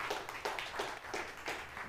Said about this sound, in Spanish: ¿Pueden dar un aplauso más al Señor esta mañana?